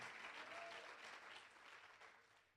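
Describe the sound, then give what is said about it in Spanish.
An audience applauds the Lord in a dense, steady wash of clapping that holds for a few seconds and eases slightly toward the end, with no voices standing out. “¿Cuánto aplauden al Señor?”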